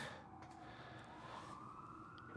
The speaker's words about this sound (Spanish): Una sirena, porque estamos en el centro de Toronto, así que el sonido ambiente que vamos a tener en estos capítulos va a ser siempre, si no es mi perro, van a ser sirenas de ambulancia, policía, bomberos, tráfico.